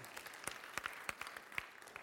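An audience in a church claps briefly for a man called up to the front: a soft, steady wash of applause with sharper individual claps popping out at irregular moments, and no one speaking over it.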